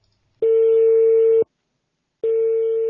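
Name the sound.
telephone ringback tone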